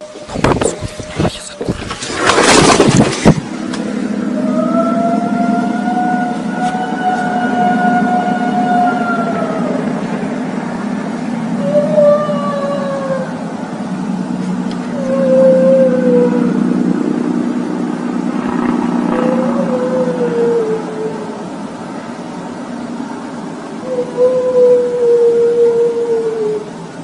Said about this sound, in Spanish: continuación un sonido en medio de la noche donde se escucha el lamento de la llorona.